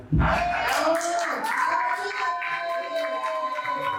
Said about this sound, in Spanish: Este aplauso es para ti.